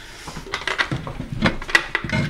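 A drawer of medicinal plasters, among them a wax lump, cast plates and Spanish fly (cantharides) plaster, is pulled open with a run of sharp wooden knocks and light rattling of loose contents, several irregular clacks over a couple of seconds, no voices.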